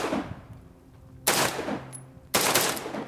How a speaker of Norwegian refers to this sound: Han begynner å skyte. Du hører bang, bang, bang! Bang, bang, bang, bang!